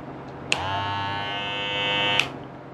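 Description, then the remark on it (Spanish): A green B-Way Faster cordless electric hair clipper switches on with a click and runs with a steady, high-pitched electric buzz for under two seconds, then clicks off. “Las dos son inalámbricas, mío Son primera vez que tengo máquinas inalámbricas.”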